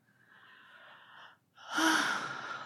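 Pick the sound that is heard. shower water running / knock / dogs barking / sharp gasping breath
sharp gasping breath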